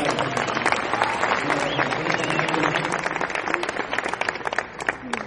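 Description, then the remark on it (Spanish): An audience breaks into sustained applause for a young boy, dense clapping with scattered sharp claps and some crowd murmur and voices underneath, thinning slightly toward the end. “Un aplauso para ese niño.”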